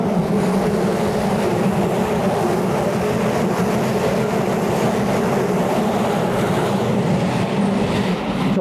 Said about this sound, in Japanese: いや電車ね、いい感じの音でしたね。ガラガラガラ。